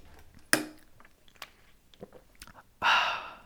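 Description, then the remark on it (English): Someone sips a cup of chai: a sharp cup tap, a few soft mouth clicks, then a brief airy slurp near the end. No one speaks. “Anywho, I'm going to take a sip of my chai.”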